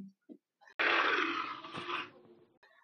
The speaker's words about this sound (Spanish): Cuando estaba cerrando los ojos, escuchó algo. Un gruñido estremecedor.